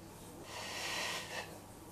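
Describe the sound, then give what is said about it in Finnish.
A steady, breathy exhale lasting about a second, airy and soft with a slight swell near the end, as a person lowers a leg toward the floor during an exercise, with no talking. “ja hengitys, hengityksen teen niin, että ulos hengityksellä tuon la, jalkaa lattia kohden”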